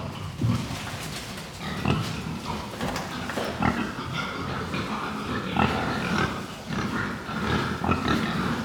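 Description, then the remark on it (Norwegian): Continuous grunting and snuffling of a pig kept as a pet, with repeated low grunts in an irregular rhythm over a rustling background. No one speaks. “Den grisen, den er liksom egentlig min kjælevenn, vil jeg si.”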